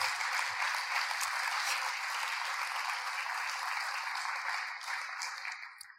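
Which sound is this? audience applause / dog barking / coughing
audience applause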